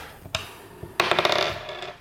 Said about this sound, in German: So, und wer anfangen darf, entscheidet der Würfel, der hier liegt. Und ich habe eine 3 gewürfelt.